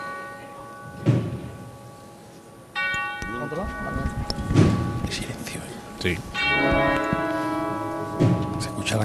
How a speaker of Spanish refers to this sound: campana como si estuviera sonando de una torre.